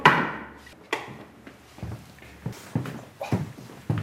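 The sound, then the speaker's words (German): The heavy door of a cold-storage chamber kept at minus 18 degrees Celsius, where seed is stored, being opened: a loud initial clunk followed by a string of irregular dull thumps and knocks, about eight in all, with no voices. “Ich öffne hier die Tür.”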